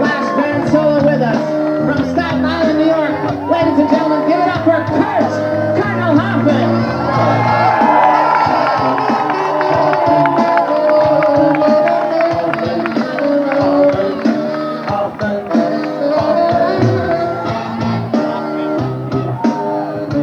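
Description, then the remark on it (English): A huge stadium crowd at Fenway Park roars and cheers continuously, loud, with scattered whoops and shouts and many voices chanting together throughout, applauding a performer at his last show. “very special fellow that we've been playing with for the last couple of years this is his last show tonight so please give a warm extra special fenway park on a round of applause and chant along as he does his”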